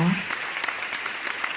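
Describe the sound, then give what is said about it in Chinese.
Steady audience applause, a dense wash of many hands clapping at an even loudness, with a brief low voice-like murmur at the very start, welcoming the speaker, the head of Huohua Design Co., Ltd., at a talk on sustainable development for small and medium businesses. “好，那我们今天呢，就把这个最珍贵的时间哈，因为只有五十分钟哈，我们把珍贵的时间呢留给我们的讲师哈，来，我们用最热烈的掌声呢来欢迎我们火花设计有限公司的负责人”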